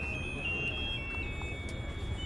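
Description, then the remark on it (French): Shrill electronic tunes from small inflatable animal-shaped boats at a weekend funfair in Brussels on a Sunday in spring: piercing high-pitched tones that hold and shift in small steps, playing continuously over a steady low rumble of background noise. “Il y a des petits bateaux gonflables en forme d'animaux qui font des petites musiques stridentes comme ça.”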